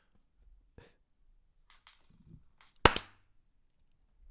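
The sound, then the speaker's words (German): One sharp, loud hand clap, made to synchronize audio and video in a recording, rings out on its own, a brief snap with a short tail, preceded by a few faint clicks and soft rustles in otherwise quiet surroundings. “Ja, und oh, wir müssen dieses Klatschding machen, damit es wieder äh, synchron wird.”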